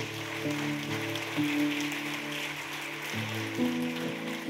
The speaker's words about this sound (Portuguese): Aplauda o Senhor Jesus.